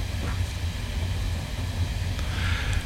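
Steady low rumble of a moving train heard from inside carriage 6, with constant rolling drone and faint high hiss and occasional light rattles, no voices.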